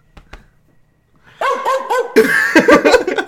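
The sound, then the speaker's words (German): A dog barks in a rapid, loud burst of repeated yaps, preceded by a couple of faint clicks and a short quiet stretch. “Wir, wir haben jetzt wieder Bellen gehört.”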